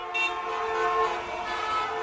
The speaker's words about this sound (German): Laut ist es auch, wenn im Verkehr gehupt wird.